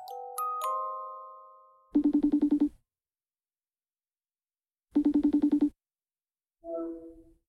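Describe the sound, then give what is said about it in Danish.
A phone call to a local politician in Copenhagen rings out: two buzzing, warbling ring tones separated by a few seconds of silence, preceded by a short electronic chime and followed by a brief muffled tone as the line connects. “Jeg ringede tilbage til den københavnske lokalpolitiker”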